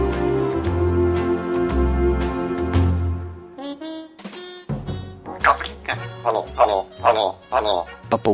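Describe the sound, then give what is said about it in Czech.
A few seconds of steady music give way to a person mimicking a parrot, letting out a string of short, harsh, squawking bursts in an uneven rhythm. “papoušek udělal tečku. Já jsem papoušek.”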